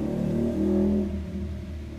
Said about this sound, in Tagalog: ingay ng motor sa labas, padaanin lang natin.